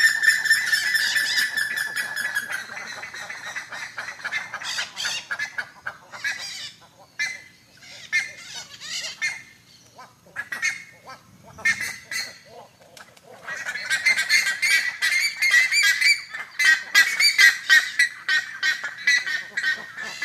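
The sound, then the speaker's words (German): A loud, dense chorus of parrots and macaws screeching and squawking in the early morning in the Pantanal wetland, with harsh calls overlapping other chirping birds, dipping briefly mid-way before swelling again into a raucous wall of cries. “Also äh, Papageien, Aras, ganz viele andere Vögel, die da geschrien, gezirpt, gezwitschert haben.”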